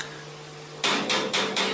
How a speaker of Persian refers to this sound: هر وقت توی ایسکاها با چکش به جون چرخهای قطار میافتن نصف گوشت تنم میریزه حق با شماست صداش آزار دهنده است